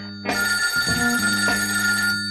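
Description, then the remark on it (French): A telephone bell rings loudly and steadily, a bright sustained metallic trill with no voices over it, opening the radio segment L'appel du good. “Allô Allô Allô Allô L'appel du good. Allô, j'écoute.”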